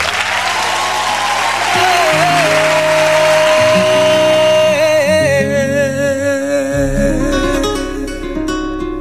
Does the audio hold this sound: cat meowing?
no